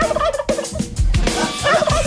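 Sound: turkey gobbling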